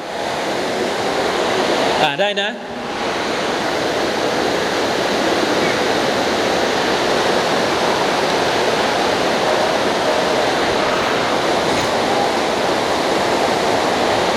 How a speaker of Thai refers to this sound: อินชาอัลลอฮ์ฝนตกหนักนะครับ